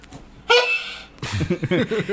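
A single loud, brassy blast from a cornet horn lasts about half a second, then stops, and a voice starts talking right after.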